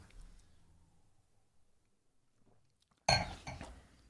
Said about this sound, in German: Darum trinken wir jetzt hier ein Glas Rotwein. Und äh, ich würde sagen, wir stoßen hier gerade mal einen an. Zum Wohl.